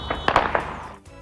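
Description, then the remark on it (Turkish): Several sharp artillery blasts from Turkish army howitzer batteries of the Reyhanlı 3rd Border Battalion Command, firing at set targets in response to fire from across the border, go off in quick succession, cracking and booming with a short rumbling tail before fading, heard alone with no voices. “Hudut Tabur Komutanlığı'na bağlı obüs bataryalarından belirlenen hedeflere top atışı gerçekleştirildi.”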